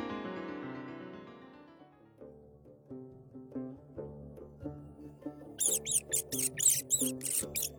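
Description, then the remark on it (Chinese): Several large brown rats scurry and rustle while rummaging through the pockets of clothes, in a quick run of about seven sharp, high-pitched bursts over a gentle, plucked melody; the melody carries on alone for the first several seconds. “阿布被一阵窸窸窣窣的声音吵醒，慢慢的睁开了眼睛。只见几只棕色的大老鼠正在翻他的衣服口袋，似乎在找吃的。”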